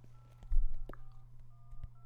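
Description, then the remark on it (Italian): Short electronic telephone tones sound in quick succession over a low steady hum as a number is dialed to put a caller on the line, with a brief thump partway through. “aspetta lo telefono, eh? Vai, eh, però fagli eh, un colpo. Gli metto la cosa qua, lo metto in linea.”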